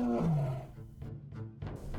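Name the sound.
tigress roaring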